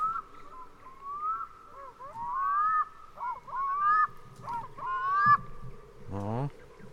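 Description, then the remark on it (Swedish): A seabird cries out again and again from some distance in light fog over water, harsh honking calls rising and falling in short bursts over a steady, muted background hum, with a low rumble near the end. “Ni är en eh, lätt dimma som ligger över vattnet och ni kan höra någon sjöfågel som skriker längre bort i, i dimman.”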